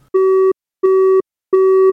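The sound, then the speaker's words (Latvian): Three evenly spaced telephone busy-signal tones heard on a phone call after a beep, each a steady electronic beep lasting about a third of a second with equal gaps between, clear with no voices. “Telefonā atskanēja pīkstens un saraustīts signāls.”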